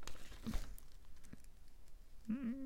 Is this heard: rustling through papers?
yes